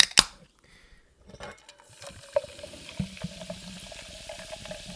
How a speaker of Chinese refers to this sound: 让我们听一听气泡水的声音。